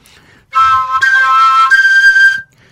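A folk whistle flute plays a short, steady phrase of about two seconds with a few note changes. The tone is bright and breathy, fairly loud, with no voices.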